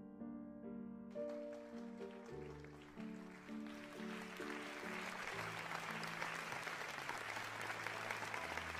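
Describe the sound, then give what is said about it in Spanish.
Audience applause swells in over the last sustained notes of instrumental music, building into a dense, steady clatter of many hands clapping that carries on loudly to the end. “Los aplausos los hicieron despertar de tan placentero sueño para oír la tercera interpretación.”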